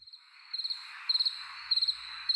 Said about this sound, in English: Enter cricket sounds.